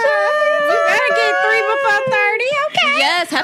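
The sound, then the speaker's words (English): A dog howls loudly and steadily for a few seconds, its long, wavering cry sliding up and down in pitch with only brief dips between breaths. “For- we got a dog!”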